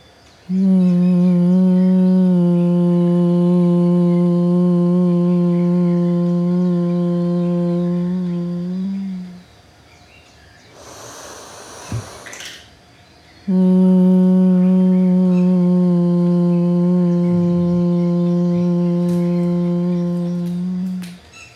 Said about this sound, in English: Today we will do the humming, chanting, the mm, chanting, Let's start.